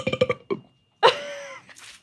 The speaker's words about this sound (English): Sorry, I always do a, a burp at the end of that poem.